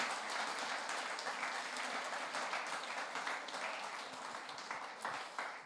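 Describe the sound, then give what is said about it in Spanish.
A church audience breaks into sustained applause for God, a dense wash of many hands clapping at a steady level for several seconds with no one speaking over it. “Así que dele un aplauso a ese Dios que hoy quiere algo contigo.”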